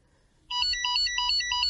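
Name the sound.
telephone ringing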